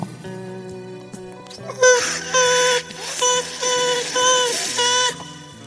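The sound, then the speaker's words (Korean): A voice makes a string of high, whiny, buzzing nonsense sounds in loud bursts, about five in a row, playfully imitating fruit fly language to tell a listener's fruit flies "Fruit fly, get lost!" “초파리 얘기는 초파리 언어로 해줘야겠죠? 네, 그래서 초파리 언어로 해줬습니다.”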